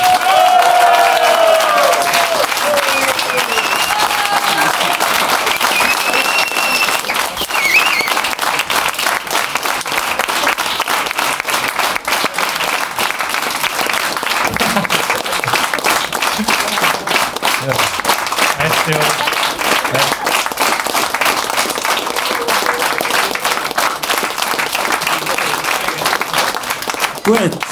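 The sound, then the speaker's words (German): Loud, sustained applause from an audience, a dense steady wash of many hands clapping with some cheering and whoops mixed in, continuing at an even level for nearly half a minute. “Riesengroßen Applaus für den Mulaffen-Podcast!”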